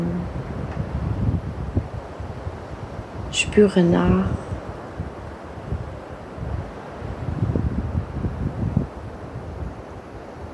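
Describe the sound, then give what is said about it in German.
Steady ocean surf rushes and swells in the background, with waves building and receding in gentle surges while a calm voice briefly speaks over it. “Meditation mit Meeresrauschen zum mentalen Abschalten und Einschlafen”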